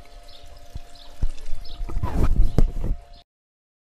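Steady water trickling and splashing from a garden pond, swelling into a busier gush midway before cutting off abruptly into silence near the end, with a few sharp clicks.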